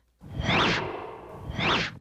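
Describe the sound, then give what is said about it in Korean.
A teacher swings a club held in his hand through the air twice on a school sports ground, each pass making a loud airy swish, the two swooshes about a second apart with a low rushing hiss between them. “아무 말씀 없이 그렇게 30여 분쯤 서 계시더니 손에 들고 있는 방망이를 휙휙 휘두르시며 드디어 입을 여섰습니다.”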